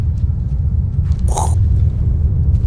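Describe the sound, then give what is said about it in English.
A voice imitates the fire of an approaching torch: a steady, loud, low rumbling roar with scattered crackles and one brief hissing flare midway, and no words spoken. “And That's my fire noise.”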